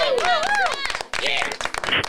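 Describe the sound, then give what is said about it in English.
Applause from a socially distanced live studio audience welcoming a guest: a steady patter of many hands clapping, mixed with rising and falling high-pitched whoops and cheers, loud and continuous throughout. “I love this applause.”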